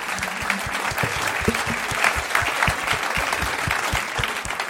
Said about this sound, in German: Ein Riesenapplaus